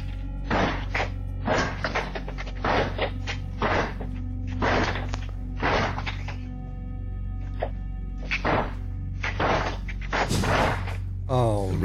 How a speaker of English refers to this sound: Before knocking or ringing the doorbell, the man in the jacket immediately starts trying to break down the door.